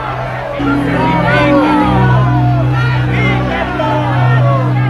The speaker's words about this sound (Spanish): ¿Por qué? ¿Qué mal os ha hecho este hombre? Preguntó Pilato, mas ellos gritaban con más fuerza.